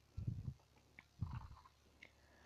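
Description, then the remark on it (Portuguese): A wolf devours a girl: two short bursts of wet, crunchy chewing and gnashing, each followed by a pause; low-pitched and fairly quiet, with no voices. “O lobo finalmente devora a menina e se deita na cama para tirar um cochilo.”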